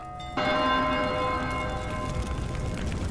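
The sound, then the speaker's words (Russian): A single strike of the large bell of an iron city tower clock, its deep, rich metallic tone ringing out loudly and then slowly fading in a long, shimmering hum, with no voices. “это были чудесные городские железные часы, знаменитые во всем свете по своей красоте и устройству, и по громкому звуку своего большого колокола, который слышен был не только во всем городе, но и в окрестных деревнях более чем за 10 верст.”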